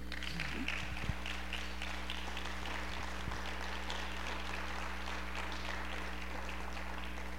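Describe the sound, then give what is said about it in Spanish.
An audience applauds the Lord in the afternoon. It is a dense, steady wash of many hands clapping that holds at an even level for about seven seconds, with a low steady hum beneath and no voices. “Si hay alguien que le ame, que por favor le aplauda al Señor esta tarde, ¿no?”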